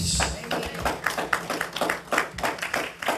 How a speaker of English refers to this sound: Can anybody receive that tonight? Say amen and give God a good hand clap of praise.